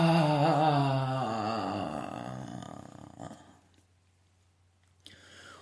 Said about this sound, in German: Ich mag das einmal im Ton demonstrieren. Wenn ich in der Sexualität bin und erregt bin und in mir viel passiert, dann bewege ich die ganze Zeit mit dem Atem meine Energie und dann klingt es oft ungefähr so, dass ich dann quasi so